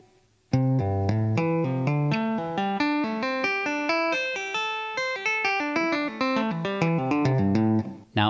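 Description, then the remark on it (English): A clean electric guitar plays a fast tapping lick, tapped with the right hand at the 8th fret, pulled off to the 3rd and hammered on to the 5th, a rapid flowing run of legato notes rising and falling for several seconds at steady volume, with no voices. “the B string is hammer on or tap with your right hand on the 8th fret, pull off to the 3rd, hammer on to the 5th”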